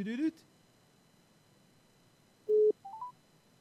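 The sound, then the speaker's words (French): After a brief voice at the start, telephone dialing tones sound as a call is placed with a withheld number: one longer steady beep followed by a quick run of short, rising electronic tones, clear over a quiet line. “On appelle du coup en masqué parce que je peux pas appeler avec le numéro de téléphone radio.”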